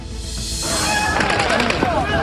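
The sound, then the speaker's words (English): A rapid burst of Israeli gunfire crackles through a chaotic outdoor scene in Gaza amid a stampede as food aid arrives, with sharp repeated shots over a constant roar of noise and indistinct shouting voices. “The horrific scene in Gaza, what we're learning more than 100 Palestinians killed and 700 injured amid Israeli gunfire and stampede as much needed food was arriving.”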